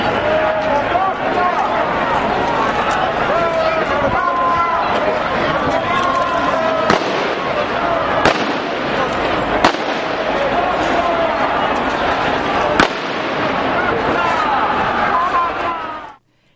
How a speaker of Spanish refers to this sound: En cualquier caso, esto es lo que sucedió, una carga indiscriminada, con disparos de pelotas de goma, que terminó con 29 heridos leves y 15 detenidos, 11 de ellos mayores de edad.